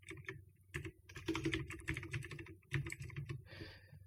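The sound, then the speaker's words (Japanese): Rapid typing on a computer keyboard while running a search for a writer's name, a dense run of clicky keystrokes in uneven bursts with brief pauses, moderately loud, with no voices present. “これ確かね、灰谷健次郎だったから、ちょっと今検索しますね。”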